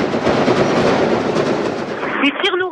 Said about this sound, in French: vous les entendez derrière moi. Des tirs en rafale depuis 2-3 minutes maintenant. Voilà, le doute plané depuis 8h30. Euh, Mohamed Merah est vivant et il se, il riposte, il répond.